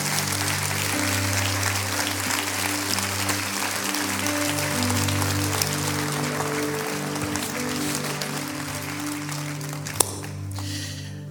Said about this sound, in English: Clap your hands for the word today. Clap your hands for the word.